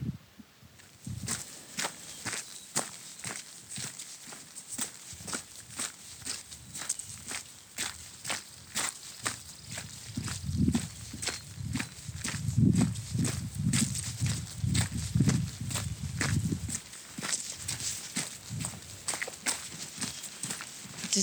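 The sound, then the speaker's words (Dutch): Steady footsteps crunch along outdoors at an even walking pace in fine weather with a few clouds, with light wind and rustling in the background and no talking. “Ik ga lopen.”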